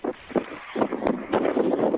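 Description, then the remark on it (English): Gusty wind buffets a caller's phone microphone during a call-in to Iain Lee's late-night show on Talk Radio, producing rough, muffled bursts of noise that rise and fall unevenly, band-limited like a telephone line, with no clear speech coming through. “Yeah, we'll come back to you when you're not so windy.”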